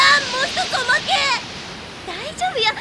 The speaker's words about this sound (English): they get jets of water in the face